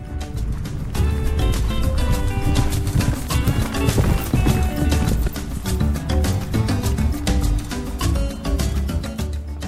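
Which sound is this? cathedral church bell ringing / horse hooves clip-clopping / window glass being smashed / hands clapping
horse hooves clip-clopping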